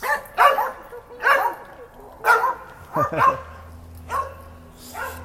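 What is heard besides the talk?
two dogs barking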